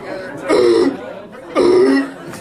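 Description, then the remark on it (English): A voice imitates the harsh, barking croup cough of a three-year-old toddler, likened to a harbor seal: two loud seal-like barks about a second apart, prominent with no other talk. “Well, croup for those of you who don't know, is having your sweet little angel three year old toddler become a full grown harbor seal from the hours of midnight to three in the morning.”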